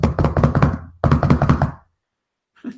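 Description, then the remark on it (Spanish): Two quick bursts of rapid knocking on a hard surface imitate two children, aged seven and three, running back and forth in the room on a Saturday at 6 a.m., then a faint brief tap after a pause. “y son los dos chavitos ya corriendo en el cuarto.”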